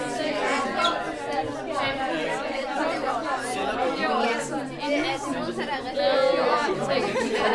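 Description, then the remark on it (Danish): Many 8th-grade students chattering at once in the biology classroom at Johanneskolen, standing in two rows facing each other and speed-dating about science terms. A steady, lively hum of overlapping voices with no single speaker standing out, holding a fairly even loudness throughout. “Det summer aktivitet i biologilokalet på Johanneskolen.”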